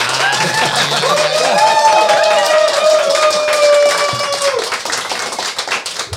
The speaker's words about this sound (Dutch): Ja, of één keer een applaus kunnen oefenen misschien met z'n allen. Dat zou leuk zijn, of niet?